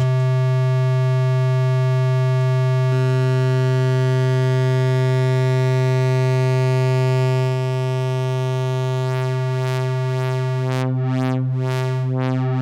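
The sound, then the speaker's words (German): A steady synthesizer oscillator drone with rich harmonics whose waveform is slowly modulated by a sine wave from another oscillator, the overtones sweeping and then pulsing in a wavering, rhythmic modulation toward the end. No voices. “Und jetzt können wir diese Wellenform, von der wir besprochen haben, können wir über einen Sinus aus einem anderen Oszillator sehr langsam verändern.”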